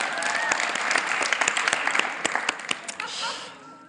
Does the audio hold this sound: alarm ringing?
no